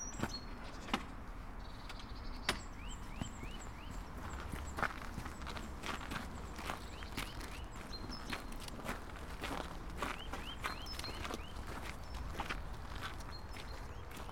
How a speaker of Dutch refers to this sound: We verlaten de kas weer en we worden begroet door de boomklever, hoor ik.